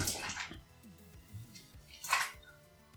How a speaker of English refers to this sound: Sorry, the cat's just spilled a full bottle of water over the fucking carpet.